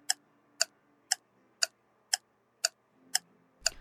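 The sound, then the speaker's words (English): A clock ticks steadily, eight sharp, evenly spaced clicks about half a second apart, crisp, with a low rumble creeping in at the very end. “But with that being said, Westoff, start the clock, please.”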